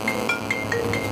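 A mobile phone rings with an incoming call from Sweden, a rapid, evenly spaced electronic trill, about six quick bright pulses at a steady level, heard on its own with no one talking.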